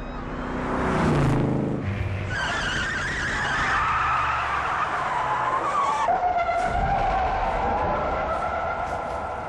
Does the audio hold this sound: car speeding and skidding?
yes